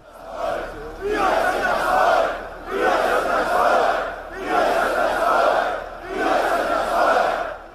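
A large Pegida crowd chants the protest slogan "we are the people" in unison, the same loud phrase shouted four times in a steady rhythm with brief pauses between each repetition.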